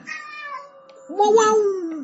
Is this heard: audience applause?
no